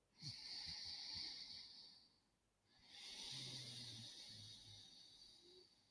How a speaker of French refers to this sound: c'est la respiration Ujjayi, qui est une respiration en fait où on serre la gorge. En fait, je vais la faire en exagérant, peut-être vous l'entendrez dans le micro.